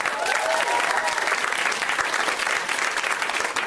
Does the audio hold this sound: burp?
no